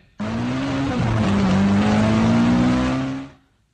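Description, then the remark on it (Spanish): A car roars loudly for a few seconds, its engine tone steady and rising slightly, with a broad rushing noise as it speeds toward the listener, then cuts off abruptly; played as a danger reaction test. “Si te topas con un carro viniendo hacia ti a esa velocidad que venía ese, ¿Alguien tiene que explicarte qué es lo que tienes que hacer?”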